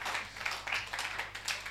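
A brief burst of audience clapping, a dense patter of many hands at a steady, fairly soft level with no voices over it.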